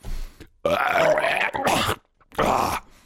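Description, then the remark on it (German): A loud burp, drawn out and throaty, breaking into three rough guttural bursts with short pauses between them. No one talks. “Der Worshipper, nur echt mit Rülps.”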